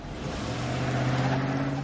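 A car engine hums steadily, its low drone rising slightly in pitch as the car drives up to a house, with continuous road rumble and no voices.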